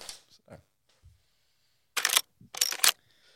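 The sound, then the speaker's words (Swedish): A sheet of paper is folded, two crisp rustling bursts about half a second apart, with faint shuffling before them and no one speaking. “Nej, men jag, ve jag vek ett papper.”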